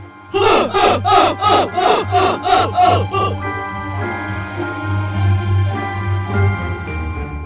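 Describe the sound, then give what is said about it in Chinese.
Eight thousand guards raise their spears high above their heads after King Twala raises his. A large crowd of men bellows a rapid series of about eight loud rhythmic shouts, then trails off into a sustained, rumbling roar of many voices. “而这时候，兹瓦拉王把枪高高的举了起来，接着八千名的侍卫也高高的把枪举在头上。这一个动作附带着发出来的声音，震天动地的，很吓人。”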